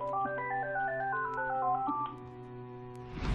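telephone bell ringing

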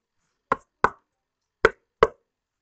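knocking on a door

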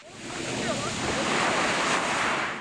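sea waves

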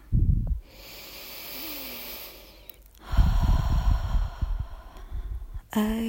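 deep breath

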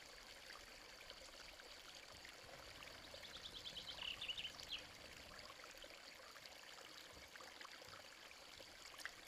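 flowing stream water

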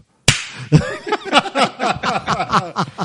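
slap

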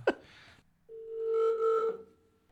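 telephone ringing

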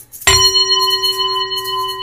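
meditation bell ringing

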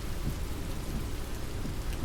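rain falling outdoors

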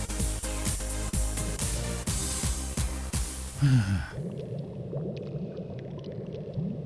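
dripping water

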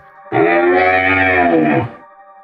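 cow mooing

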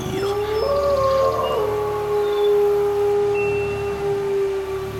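wolf howling

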